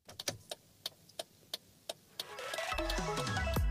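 A car's turn signal ticks in a steady rhythm, about eight crisp clicks, before a loud swelling engine-like rumble rises and takes over at the end.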